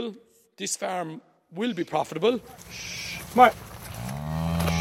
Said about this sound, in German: schaut einer Gruppe von Kühen nach, die in langer Formation aus dem Melkstand heraus und zurück auf die Weide trotten.